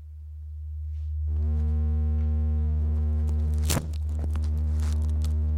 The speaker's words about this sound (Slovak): Trošku spätná väzba. Skúsme druhý pokus.